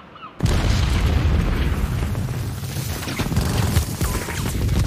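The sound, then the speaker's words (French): At 6:20, Allied planes relentlessly bomb the Normandy coast, targeting the German Atlantic Wall guns and batteries and the beaches before the landing: a sudden, heavy boom breaks in after a brief quiet, followed by a continuous low rumble of explosions and crackling bursts that keeps rolling without pause, with no voices. “Les avions alliés bombardent sans relâche les côtes normandes.”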